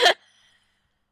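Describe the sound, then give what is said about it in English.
A single sharp sneeze bursts out, loud and over in a fraction of a second, followed by near silence. “oh, bless you.”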